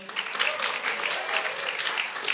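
An audience claps steadily, a dense patter of many hands with bright sharp transients throughout, at a moderate level with no pauses.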